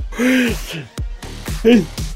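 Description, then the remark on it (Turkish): A person yawns, a drawn-out voiced yawn that slides down in pitch, followed by a couple of shorter breathy, sighing vocal sounds. “Esnemeye başladık bak vallahi nazar çıkıyor ha, demektir ya.”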